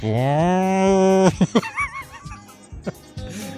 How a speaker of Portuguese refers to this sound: aquele berrante, não.